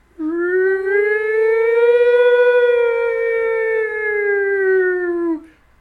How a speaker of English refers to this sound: And I so appreciate the restraint on this movie. They let that siren hold. Yeah. And like she's just looking around and it's loud, but it's not like ear piercingly loud.